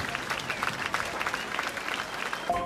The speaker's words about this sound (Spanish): Escucha el verano. Las olas el aplauso al atardecer.